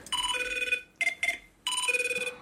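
A telephone rings in two long electronic bursts with a rapid warbling trill, separated by a couple of short chirps, fairly loud with no talking.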